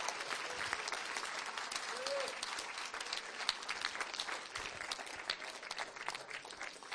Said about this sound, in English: Somebody clap.